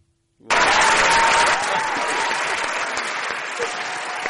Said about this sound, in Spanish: Como que los aplausos de repente te pegan acá. Es como muy bueno. Muy, muy, muy lindo. Muy lindo.